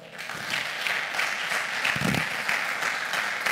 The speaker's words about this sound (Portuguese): Você pode dar um aplauso aí então?